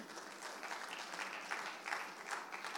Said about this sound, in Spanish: Alguien dice un amén. Den un aplauso fuerte a Jesús en esta tarde.